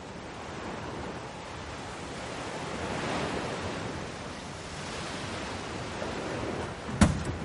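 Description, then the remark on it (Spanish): Steady roar of ocean surf washing onto the shore beside a road along the ocean, with swells rising and falling in broad waves and a sharp knock near the end; no voices. “Bradek conduce por una carretera junto al océano.”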